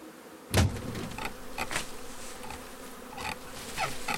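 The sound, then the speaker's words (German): A dense, steady drone of a honeybee swarm buzzing together, continuous, with a brief sharp knock near the start and no voices. “Die Schwarmtraube sprüht man mit dem Zerstäuber von allen Seiten mit Wasser ein und das bewirkt, dass sich die Bienen enger zusammenziehen und nicht so schnell auffliegen.”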